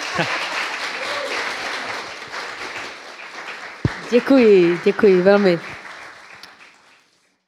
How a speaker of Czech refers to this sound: Děkuji za, ehm. ten, za tento upřímný potlesk. Velmi děkuji.